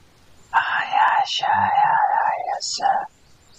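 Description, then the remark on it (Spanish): An eerie whispering sound effect in a tabletop role-playing game, heard as the characters walk through a forest: breathy whispering rises and falls in a few long hissing phrases over about two and a half seconds, with sharp sibilant bursts and no clear words. “Es como unos susurros, no sabes si es el viento, no sabes si es Corday, o si es alguien más, o si es algo más.”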